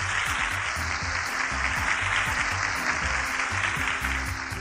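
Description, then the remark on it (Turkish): Steady applause from a group of children cheering a correct quiz answer fills the whole stretch, a dense, continuous patter of many hands clapping at once, fairly loud and without a break. “Doğru cevap mı sevgili çocuklar? Doğru. Haydi bakalım alkışlayalım.”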